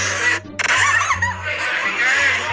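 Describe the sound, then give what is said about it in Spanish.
Shrill, squealing cries wavering high over a steady electrical hum, sounding like screams played back through a small speaker, continuous for a few seconds with a brief break near the start. “Se escuchan gritos horribles.”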